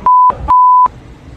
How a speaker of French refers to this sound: il y a quelques bips, là.